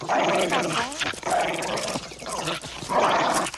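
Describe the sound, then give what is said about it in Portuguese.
A dog barks and growls in several rough bursts across a few seconds, with a snarling, throaty edge between the louder yaps. “deixa o cão quietinho e vem comer alguma coisa.”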